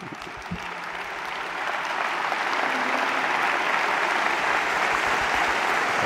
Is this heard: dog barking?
no